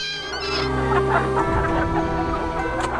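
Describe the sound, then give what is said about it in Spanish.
Several chickens in a henhouse cluck and squawk in agitation as a coyote attacks, some flying off in fright, loud, with a busy, continuous flurry of calls throughout and no voices. “Algunas gallinas volaron despavoridas.”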